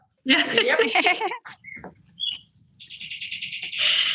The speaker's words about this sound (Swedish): Nu är min kyckling färdig, nu kvittrar det.